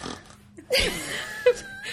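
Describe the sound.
A person imitates a snore with a rough, grunting, throaty rasp that starts abruptly and drags on, followed by a brief higher snort-like catch near the end.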